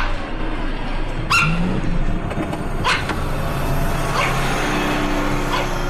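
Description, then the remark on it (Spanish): A dog barks four times at irregular intervals, each bark short and sharp, over a steady background rumble like a running engine. Nobody speaks. “Este perro es único, es como mi hermano.”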